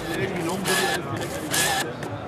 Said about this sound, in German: Aber dann halte ich nochmal das Mikrofon an den Drucker. Wenn du jetzt was abstiegst, sollte es ja da rauskommen.